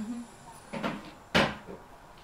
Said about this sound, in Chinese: 公交车门打开。